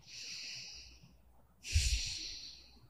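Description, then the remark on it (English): A slow, deep breath drawn in with an airy hiss, a short pause, then a fuller exhale with a brief nasal, snort-like rush, with no talking. “that's why breathing creates that relief.”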